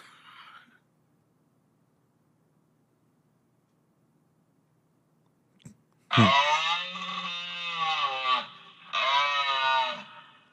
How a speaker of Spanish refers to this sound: ¿Has escuchado cómo hace un alce?